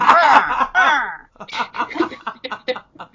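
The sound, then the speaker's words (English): A voice croaks out two harsh, drawn-out caws in imitation of a crow, fairly loud, followed by a stretch of quick conversational speech. “You said if he picks up the key, and then I could hear a crow in the background going.”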